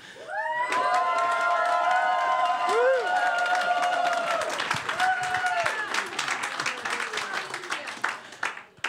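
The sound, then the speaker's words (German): The Treffpunkt Leben Ditzingen church audience, asked to show a thousand hallelujahs, erupts in loud cheering and shouts, many voices rising together with sustained whoops, while steady applause and clapping build underneath and continue throughout. “Darf ich mal hören, wie tausend Hallelujas sich anhören von Treffpunkt Leben Ditzingen?”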